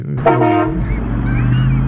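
A loud train horn gives one short, brassy blast of about half a second, then fades into a steady low rumble and hum.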